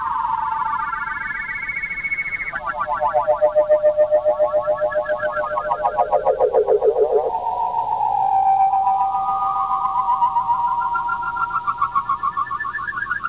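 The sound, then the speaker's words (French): Early experimental electronic music composed by two pioneers of electronic music: warbling, pulsing oscillator tones that glide and jump abruptly between pitches, steady and fairly loud throughout, with no voices. “c'est des pionniers de la musique électronique. C'est eux qui ont composé ce que tu entends là.”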